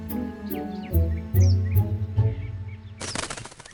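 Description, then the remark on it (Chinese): A hwamei thrush sings in short, bright whistled chirps and rising sweeps, over rhythmic low fluttering thumps like flapping wings, ending in a sudden burst of broad rustling noise. “啊，是画眉啊！”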